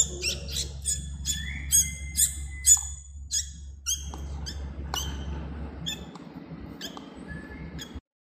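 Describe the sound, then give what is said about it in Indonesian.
A hungry young bird begs for food with rapid, insistent high-pitched chirps, opening its mouth in response to people saying "cip cip": many short squeaky calls repeat over a low, steady background rumble. “Jadi itu adalah suara si burung ketika kita bilang cip cip cip cip.”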